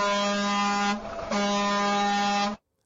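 Two loud, blaring air horn honks: a long blast, a brief gap, then a second sustained blast that cuts off abruptly, harmonically rich with no talking.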